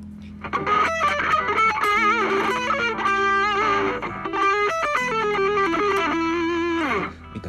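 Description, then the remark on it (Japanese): A distorted electric guitar plays a fast, busy metal-style phrase over a sustained low drone, with bent and quickly picked notes, loud, ringing out before stopping abruptly near the end. “まあこれが合うのはメタルとかでしょうけどね普通のポップなロックのでいきなりこんなね。みたいなフレーズ飛び出したらねちょっと弾いちゃいますからそこは気をつけてください”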